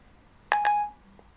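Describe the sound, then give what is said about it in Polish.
An iPhone with VoiceOver turned on gives two quick, bright blips in rapid succession, tonal and slightly ringing, the standard iOS sound as the phone connects to the internet, followed by a faint tick a moment later, with no talking. “gdy będzie włączony voice-over, będziecie normalnie słyszeli ten komunikat standardowy mm, iOS-a, czyli takie pykanie w momencie, gdy telefon nasz będzie łączył się z internetem.”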